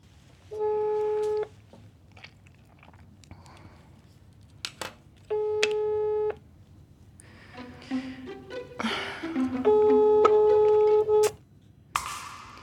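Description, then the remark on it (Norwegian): A telephone ringback tone sounds three times, each a steady electronic burst about a second long separated by pauses, with faint clicks and rustling in between. A call put through by a national switchboard to the foster care service goes unanswered. “Nei, her er det vel ingen som svarer.”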